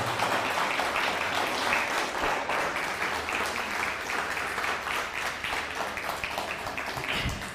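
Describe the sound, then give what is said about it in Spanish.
Sustained applause from an audience greeting a participant from Mexico City, dense crackling claps filling the whole stretch at a steady, fairly loud level with no voices standing out. “sí, desde la Ciudad de México, un fuerte aplauso, Ciudad de México.”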